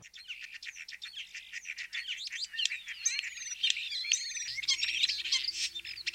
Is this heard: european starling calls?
yes